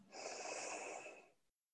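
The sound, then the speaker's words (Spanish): A single long, steady inhale drawn in through the nose during a guided relaxation breathing exercise, clear and lasting over a second before trailing off into silence. “Otra vez, inhala.”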